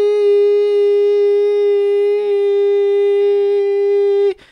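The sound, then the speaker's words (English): A voice holds one long, steady, high-pitched "eee" tone for over four seconds, loud, imitating the continuous ringing beep of tinnitus heard in the head, before cutting off abruptly. “Randomly, every hour or two, I would start to hear these very long, ongoing beeps in my head. It kind of sounds like ee”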